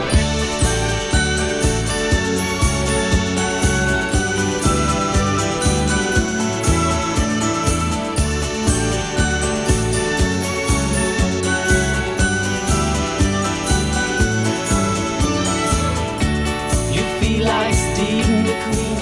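An upbeat 1970s pop song plays loudly and continuously, driven by a steady thumping beat with bright, jingly tinkling accents over a full band, with no one talking over it.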